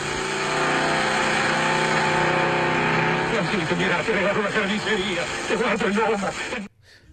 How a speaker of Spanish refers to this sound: Y así termina la escena, porque Juan Galvez le sale a probar el auto en la, en la ruta, en la ruta no, en los caminos de tierra y se lo pone a fondo.